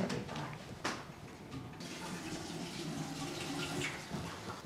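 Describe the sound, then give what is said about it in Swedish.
Water pours steadily into a glass for several seconds, a continuous splashing stream with a couple of brief clinks near the start. No one speaks. “Jag ska ta ett glas vatten.”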